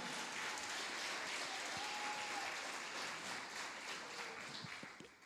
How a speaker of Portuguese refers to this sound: Agora eu quero pedir a você que dê um forte aplauso para a nossa equipe de impacto. Dê um forte aplauso a essa equipe de impacto maravilhosa.